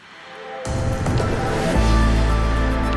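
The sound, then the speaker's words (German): The ARD Infonacht traffic-service opener jingle on the radio starts with a rushing, whooshing swell, then a deep low layer and sustained tones build in. It is loud and continuous, with no talking. “Nein, das war jetzt der falsche Opener, aber jetzt müssten wir den richtigen hier haben.”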